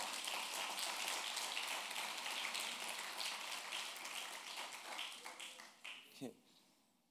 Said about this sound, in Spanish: Vamos a dar un fuerte aplauso al Dios Poderoso en esta hora.